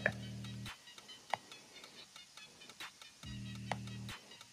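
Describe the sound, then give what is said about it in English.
Two short electronic phone alert tones from incoming text messages, each lasting under a second and spaced about three seconds apart, with a few faint clicks in between and no talking. “Somebody texting me, man. They keep on calling my phone while I'm working, man.”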